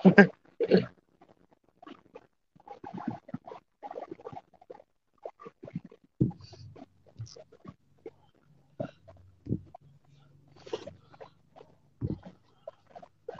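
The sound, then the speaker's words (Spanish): A small dog makes a series of short, irregular snuffly yips and grunts, with brief pauses between bursts and some low rumbling sounds mixed in. “Ay, ese perrito.”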